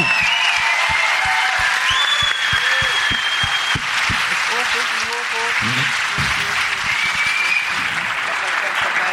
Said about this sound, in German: Also, liebes Publikum, euer Applaus für den Kletterfelsen.